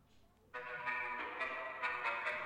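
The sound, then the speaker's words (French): The instrumental beat of a rap song kicks in abruptly after a short quiet moment, with sustained synth tones and crisp percussive hits recurring at a steady pace, fairly loud with no voices. “Non, moi, et le beat là.”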